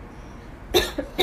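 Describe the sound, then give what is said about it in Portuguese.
A short burst of coughing: one strong cough followed by two smaller ones in quick succession, fairly loud against a quiet background. “Agora, falando em, em espirro e tossidas, é.”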